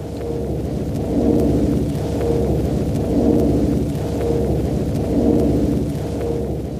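A deep, continuous underwater groaning hum of jellyfish rising from the deep at twilight to feed on plankton at the surface, like a droning air conditioner, swelling and fading in a slow rhythm about every two seconds, with no voices.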